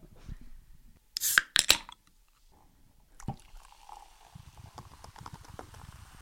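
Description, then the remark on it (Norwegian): A soda can cracks open with a sharp hiss and metallic clicks, then after a brief pause soda pours into a glass with steady, bubbly fizzing. No one speaks. “Og nå skal du åpne din, og så skal jeg ta opp lyden av det òg, så ser vi hvem som har best lyd.”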